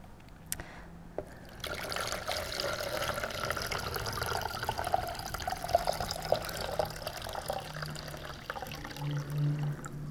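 Servants pour water steadily into six big empty stone jars, a continuous splashing stream that starts after a brief pause and keeps running, with a faint hollow ring as the vessels fill. No one speaks.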